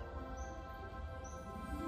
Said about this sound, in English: And it's Thursday, and I need to get this video done, right? So it's like 7.30 in the morning. Wait, can you hear that bird?